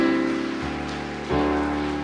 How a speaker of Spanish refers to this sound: que esas palmas sean, hermano, porque le está provocando gozo.